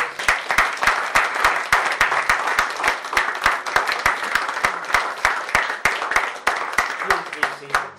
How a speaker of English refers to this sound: Can you give a big clap offering to Jesus?